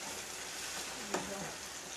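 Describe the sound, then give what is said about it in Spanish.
Onions sizzle steadily in a pan, a dense crackling hiss filling the whole clip, with a brief sharper clink or scrape partway through and no one talking. “todo el rato que he estado haciendo la cebolla frita”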